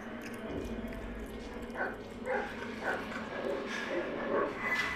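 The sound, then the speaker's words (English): A dog in a video game trailer gives a series of short barks and yips at irregular intervals, mixed into a dense, rumbling background of game sound effects, moderately loud. “Oh man, they gonna kill the dog.”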